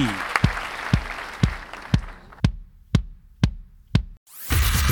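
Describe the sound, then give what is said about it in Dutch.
Applause in a steady, evenly spaced rhythm, about nine sharp claps roughly half a second apart, over a wash of crowd noise that drops away midway before a burst of noise returns at the end. “Geef maar applaus.”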